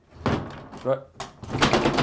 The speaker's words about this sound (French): la porte.